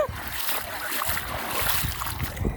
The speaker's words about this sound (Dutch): Dat is de zee op Aruba. Ik sta namelijk nu op dit moment op Baby Beach.